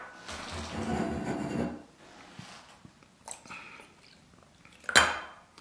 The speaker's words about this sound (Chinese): 呃，我喝点水啊。